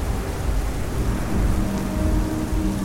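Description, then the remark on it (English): Heavy rain pours steadily while low, rumbling thunder rolls beneath it, a dense and continuous storm wash with no breaks and no voices. “More lightning came, more thunder, more rain, but none of it mattered anymore.”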